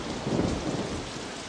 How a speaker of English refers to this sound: In a flash, thunder cracked the sky. Rain poured down.